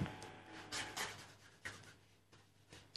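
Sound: pen scratching on paper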